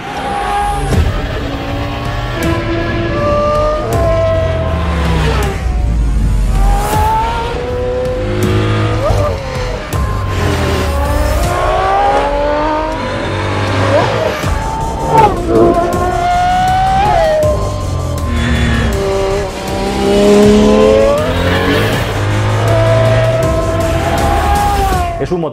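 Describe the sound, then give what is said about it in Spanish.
A loud Aston Martin naturally aspirated V12 race car engine of about 1000 hp, derived from a road car, revs hard over and over, its pitch sweeping up and down in rapid rising and falling bursts, with occasional tire squeal. “ASÍ ES EL MEJOR V12 DE LA HISTORIA: 1000 CV y ATMOSFÉRICO”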